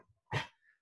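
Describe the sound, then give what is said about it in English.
A single sharp dog bark rings out, short and loud, followed by a faint high whine trailing off, as the dog chases moths on a window screen. “And you can hear him barking at him. He's trying to get him.”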